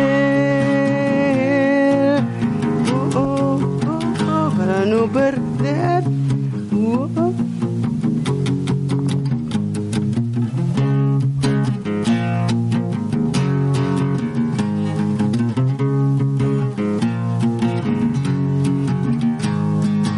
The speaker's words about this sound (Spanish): Bueno, ahí estábamos escuchando el nuevo, el nuevo tema eh, para la gente que no lo conoce.